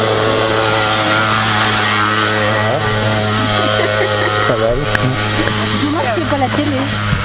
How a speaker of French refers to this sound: et puis c'est aussi la journée, euh, la journée des, étonnements puisqu'on vient de voir passer euh, une mobilette qui faisait la, montée du col de l'Anf.